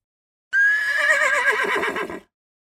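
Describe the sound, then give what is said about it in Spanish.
A single loud horse whinny lasting under two seconds: a high, bright neigh that wavers and shakes as it trails off, with no other sounds around it. “Este hombre les trenza el pelo a los caballos.”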